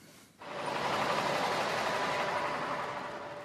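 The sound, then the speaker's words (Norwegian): A truck carrying refugees arrives in northern Uganda: its engine roars in abruptly after a short quiet moment, then holds a steady, broad rumbling drone with a faint humming tone running through it. No one speaks. “Enda en lastebil med flyktninger ankommer Nord-Uganda.”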